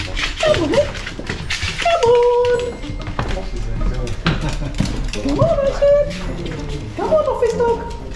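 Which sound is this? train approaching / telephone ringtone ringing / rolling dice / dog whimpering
dog whimpering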